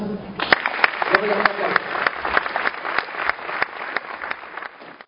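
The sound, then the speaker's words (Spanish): An audience bursts into applause, a dense patter of many hands clapping steadily for several seconds, with a few sharp louder claps standing out and faint voices briefly mixed in at the start. “Entonces un aplauso.”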